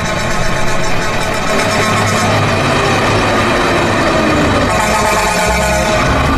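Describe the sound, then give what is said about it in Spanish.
A loud horn blast, a radio show's celebratory 'bocinazo' for the pilot of the program 'Mucho de qué hablar', holds steady for several seconds, a brassy, unwavering tone layered over dense rumbling noise, with no voices heard. “Bueno, ahí estuvo el bocinazo para el mucho de qué hablar.”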